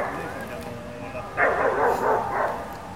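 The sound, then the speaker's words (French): A dog barks and yips in short bursts while a person keeps talking over it; the loudest stretch of barking comes midway through. “Je vais vraiment être un chien de la casse parce qu'à chaque fois que je parle, il y a des bruits de chien quand même.”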